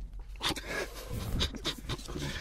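Heavy, rapid breathing right up against a microphone, a series of loud panting huffs with breathy hiss, repeating unevenly over a couple of seconds with no talking.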